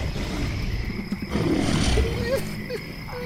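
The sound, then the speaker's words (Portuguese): Caimans roar back and forth: a deep, rumbling roar swells up midway through over a steady, noisy backdrop, then fades into fainter low growls. “Um dos animais rugiu à frente e outro respondeu próximo a Elliot.”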